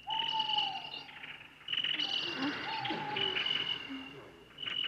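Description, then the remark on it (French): Nocturnal birds call out in repeated hooting and whistling phrases on a warm, humid night in the forest around a village, over a constant high-pitched drone of insects filling the dark background. “Dans la nuit chaude et humide d'Opascouépissime, la lune où les oiseaux jettent leurs plumes, les oiseaux nocturnes lançaient leurs cris.”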